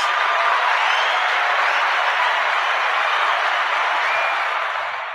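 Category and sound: crowd, applause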